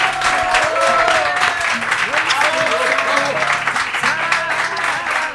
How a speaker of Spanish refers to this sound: Yo os pido un aplauso muy fuerte para estos dos señores que tengo aquí a mi lado.